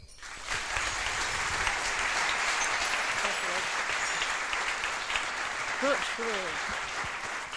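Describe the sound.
An audience breaks into loud, sustained applause that holds steady for several seconds, with a few faint voices and brief cheers rising over the clapping, welcoming a speaker who will talk about her first humanitarian field experience.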